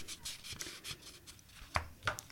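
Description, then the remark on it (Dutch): Quiet rustling and scraping of a cassette tape being handled into its plastic case, ending in two sharp plastic clicks near the end. No one speaks. “Ik moet even in het hoesje.”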